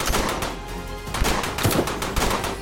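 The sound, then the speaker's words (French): A rifle is fired from a bedroom window, emptying a fresh magazine round after round in quick succession, sharp loud cracks forming a sustained volley with no pause, with no voices. “Depuis la fenêtre de la chambre, Clyde ajuste son fusil et vide un nouveau chargeur”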